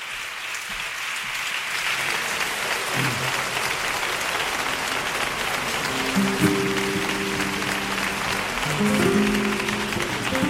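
Sustained audience applause, a dense, steady wash of many hands clapping at an even loudness for about ten seconds, with some faint tonal music or voices rising underneath toward the end.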